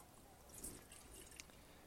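Water trickles and splashes into a cooking pot being filled to boil pasta, quiet, a steady wash of liquid with a couple of brighter drip-like plinks over about two seconds.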